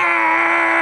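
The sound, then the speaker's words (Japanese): A voice imitates a wailing cry, holding one steady, drawn-out tone loudly for just under a second, with no other sounds around it. The cry comes from behind, through an apartment door, from the shared hallway. “ーんという泣き声が背後から聞こえてきたのです”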